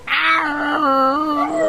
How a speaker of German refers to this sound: Der Mops jault doch auch.